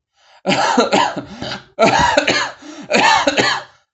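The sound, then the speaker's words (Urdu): A hard, raspy coughing fit from an old man: three loud bursts of harsh, strained coughs with brief gasping pauses between them, and no talking. “بڈھا یہیں تک کہنے پایا تھا کہ اسے زور کی کھانسی اٹھی”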